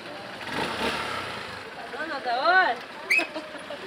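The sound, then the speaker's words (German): A motorcycle taxi engine in the village of Ambo Miarina in the central highlands of Madagascar, carrying a Catholic nun to a workshop, rumbles, then revs up and down in quick rising-and-falling whines, with a brief sharp burst near the end; no one speaks. “Ein Motorradtaxi bringt die katholische Ordensschwester Modestine Rasolo Foarivola zu einem Workshop ihrer Organisation Wahatsch.”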